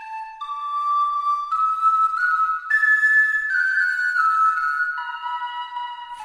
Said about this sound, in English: You know, I had to get my Irish tin whistle in this episode since I'm taking lessons. And if you don't recognize this song, it's the theme from Outlander originally titled The Skyboat Song. And yes, I know it's a Scottish love song.